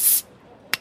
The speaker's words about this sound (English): So pop a bottle.